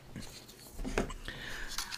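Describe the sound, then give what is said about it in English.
A dog, Leia, scratches at couch upholstery while trying to get comfy on the couch: soft, irregular raspy strokes with a few sharper scrapes, fairly quiet. “I, I hear this scratching behind me.”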